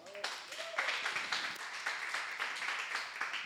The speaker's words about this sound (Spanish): Yo me daría un aplauso a mí mismo.